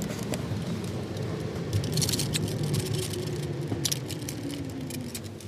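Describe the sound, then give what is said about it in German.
Plastic water bottles in a newly bought shrink-wrapped six-pack creak and crinkle in irregular bursts over the steady low rumble of a moving car, moderately loud, with no talking. “Dann habe ich mir gerade so ein Sechserpack Wasser geholt. Und das knatscht auch ohne Ende.”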